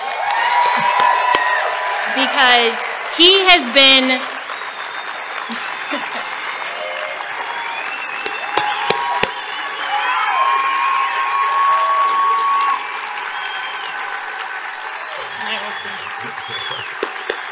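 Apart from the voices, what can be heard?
audience applause and cheering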